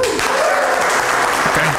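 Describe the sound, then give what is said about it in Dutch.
A crowd claps steadily and loudly in response to a political call for new leadership in the Netherlands, a dense wash of many hands filling the whole short stretch, with a few faint voices mixed in underneath. “toch applaus voor nieuw leiderschap.”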